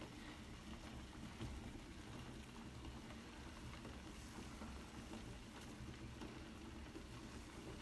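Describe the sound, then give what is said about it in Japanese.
A pot of kitsune udon noodle soup bubbles and churns steadily at a rolling boil as it cooks, a continuous low rumbling gurgle with a hissy edge, with no one talking. “うわあ怖い怖い音してるきつねうどんが怖い音してる”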